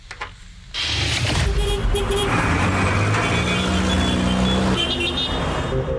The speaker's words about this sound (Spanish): El ruido de la Ciudad de México ensordece pero a su vez, los daños que causa son silenciosos, pero no por eso menos perniciosos.